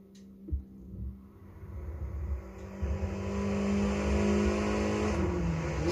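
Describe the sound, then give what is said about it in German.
A video game Volkswagen GTI engine accelerates alone, a low steady rumble whose pitch climbs and grows louder over several seconds, with a brief thump near the start. “Also ich bin jetzt hier mit dem Volkswagen GTI.”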